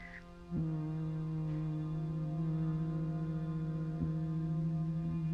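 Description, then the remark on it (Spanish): A low, steady human hum imitating a bee's buzz, bhramari breathing during a meditation practice, starts after a brief pause and holds one unbroken pitch to the end. It is even in loudness, with no talking. “Y empieza el sonido de la abeja.”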